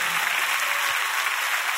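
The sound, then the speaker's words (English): An audience claps at the preacher's call during a sermon, producing a dense, even wash of hand claps that holds steady at a fairly loud level for the whole moment, with no talking over it. “Clap your hands one time.”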